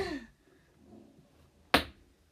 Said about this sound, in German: Hör doch mal auf mit diesem Pfeil jetzt hier alles zu betitschen.